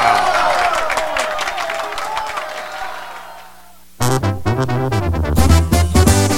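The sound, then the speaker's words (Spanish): An applause sound effect for a Guatemalan radio show's "applause of the day" segment: a crowd applauds and cheers loudly for about four seconds, the clapping thinning and fading away before voices and a burst of sound cut in abruptly. “vamos con el aplauso del día.”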